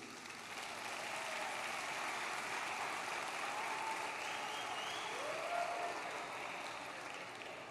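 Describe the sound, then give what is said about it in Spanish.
A church audience breaks into sustained applause during a sermon, a dense steady wash of many hands clapping that swells quickly and holds for several seconds, with a few faint voices calling out within it. “Los escasos pueden dar un aplauso en este momento.”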